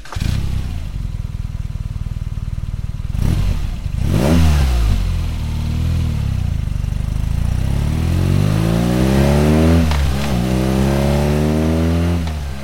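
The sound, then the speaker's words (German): A boxer twin motorcycle engine idles with a steady low rumble, then revs sharply several times, the pitch sweeping up and falling back in repeated throttle blips, loud with no voices. “Das ist der Boxer und der 1 war der Reihen 2.”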